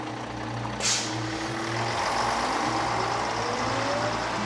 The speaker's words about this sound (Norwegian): Da bussen kjører videre, krysser paret over gata.